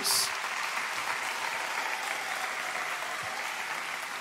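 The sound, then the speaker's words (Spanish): A crowd claps steadily for about four seconds in applause for Jesus, a dense, even wash of applause that holds at a fairly constant loudness from start to finish with no voices rising above it. “¿Cuántos le dan un fuerte aplauso a Jesús?”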